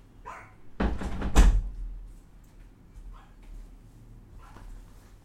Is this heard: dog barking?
yes